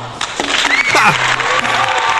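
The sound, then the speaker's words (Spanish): A burst of loud applause from a crowd, dense and continuous clapping with some cheering and whistles mixed in, lasting a couple of seconds, played as a sound effect on the show Viernes de Clásicos. “Bienvenidos a Viernes de Clásicos, el aplauso.”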